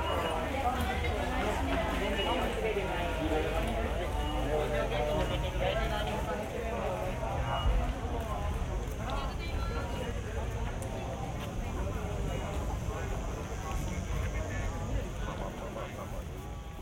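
Busy outdoor crowd ambience on the Fuji Rock Festival grounds, a binaural recording, with steady overlapping chatter, shuffling footsteps and a constant wash of background noise of people milling around, immersive throughout.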